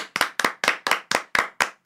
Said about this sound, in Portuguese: Tudo isso só está acontecendo por causa da família Kardashian. Palmas. Tá, palmas